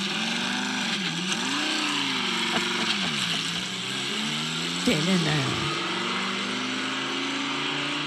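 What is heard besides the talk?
sports car engine revving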